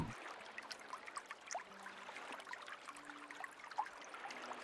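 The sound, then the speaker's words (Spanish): Soft, steady flowing water babbles and trickles continuously, with small bubbling splashes scattered throughout; quiet, with no voices. “Sentí como el agua te renueva por completo.”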